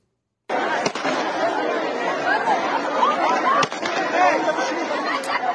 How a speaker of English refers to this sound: This was about 12 hours ago. You can hear the screams when some sort of riot control agent is being used on scores of Afghans trying to get through, maybe get onto one of those flights.